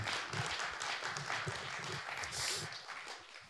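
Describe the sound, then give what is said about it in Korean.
A burst of audience applause for a guest who has become an economics expert, dense overlapping claps filling the full length at steady moderate volume, with some cheering-like brightness midway and no clear speech on top. “박수 정말 박수 한번.”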